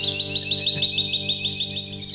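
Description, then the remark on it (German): A European robin sings a quick, continuous run of high, thin chirps and trills, fairly clear, with a steady low hum underneath throughout. “Und das ist ein Rotkehlchen.”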